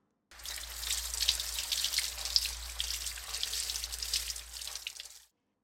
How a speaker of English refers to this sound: We use water for washing. Example The boy and his father washing a car.